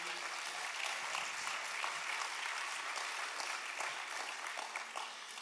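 A crowd applauds a man who spent two days a week fixing the lights ten metres up, a dense wash of many hands clapping at an even loudness for several seconds, with no voices standing out above it.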